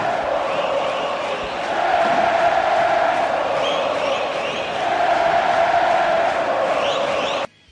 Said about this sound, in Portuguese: vamos ouvir a galera, vamos ouvir a nação rubro-negra gritando Mengo. E foi num negócio assim, uma, como se fosse um mantra, né? Lembrando muito o Maracanã que eu conheci.